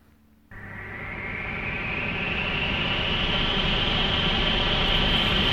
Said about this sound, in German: Hilfe! Was ist das? Hört nur! Wie ein riesiger Sturm! Er erfüllt unser Haus! Er erfüllt unsere ganze Stadt!